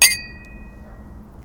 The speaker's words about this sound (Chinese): 那我们要不就在这一期结束，给大家干个杯。 好。虽然我已经快喝完了，那还是让大家听一下干杯的声音。